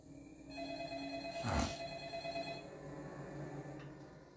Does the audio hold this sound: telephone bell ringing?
yes